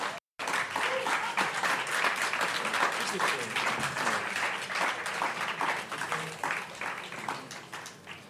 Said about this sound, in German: Ja, bitte einen warmen Applaus.